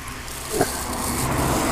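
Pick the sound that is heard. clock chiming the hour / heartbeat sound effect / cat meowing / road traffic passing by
road traffic passing by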